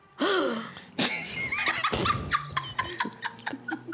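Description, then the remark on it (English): A sudden, sharp intake of breath, a loud dramatic gasp made by a voice, followed by several breathy bursts like stifled giggles and short exhalations. “So if you're listening at home, how you're going to play is you're going to drink if the cast members gasp.”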